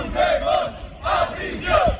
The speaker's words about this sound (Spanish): A las puertas del hotel eh, de Bruselas, donde se aloja el negociador del PSOE, Santos Cerdán, se ha congregado una veintena de personas que lo han increpado con estos gritos.